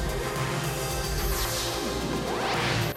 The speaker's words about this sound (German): Macht natürlich mit so einem Echo-Effekt Sinn, ich drehe den Effekt mal ganz auf, damit man ihn ein bisschen besser hört